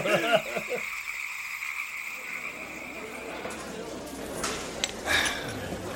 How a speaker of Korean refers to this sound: 일단은 여름이라서 뭐 개구리와 풀벌레들이 입을 모아 합창하고 있었고 그 소리는 나는 것이 아니라 구르는 것처럼 들렸어.